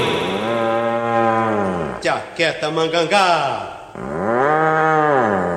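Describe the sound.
A cow lets out two long, loud, drawn-out moos, one at the start and one at the end, with a short burst of speech between them.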